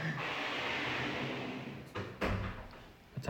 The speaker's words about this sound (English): Time out for a sec. She's got to open the door.